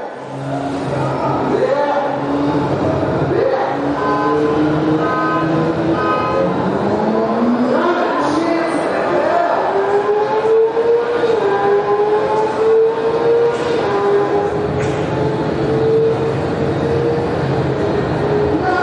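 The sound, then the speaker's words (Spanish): An electric car and a motorcycle race side by side, their motors whining higher and higher as they accelerate, with loud, continuous road and wind noise throughout. “Un coche eléctrico. Bueno, vamos a ver un pequeño, contra una moto.”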